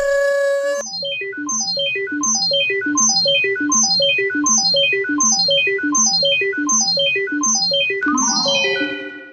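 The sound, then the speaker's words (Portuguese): A time machine sound effect as the time machine is switched on: loud electronic tones cascade downward in quick, repeating sweeps over a low drone, ending in a bright shimmering burst. “Então, vou ligar a nossa máquina do tempo.”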